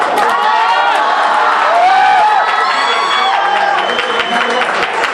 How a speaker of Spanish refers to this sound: Los gritos de ambas aficiones llenan el comedor de los milagros. Por primera vez hay una cierta igualdad en cuanto al ruido.